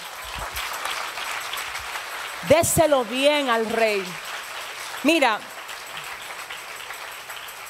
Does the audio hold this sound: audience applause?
yes